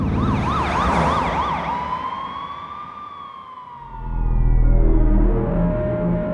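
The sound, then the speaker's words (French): A police patrol car siren, with its flashing light switched on as it speeds toward the Presidio district, wails in a fast rapid yelp, then shifts into a slower rising and falling wail, with a deep engine rumble swelling underneath toward the end. “Fouque enclenche son gyrophare et fonce vers le quartier du Presidio.”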